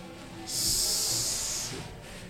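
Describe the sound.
A steady, breathy hiss like a snake, sustained for over a second, with faint low rumbling underneath and no talking.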